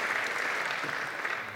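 A dense burst of audience applause for Agi Jack, many hands clapping steadily at a fairly loud, even level for a second or two with no voices standing out.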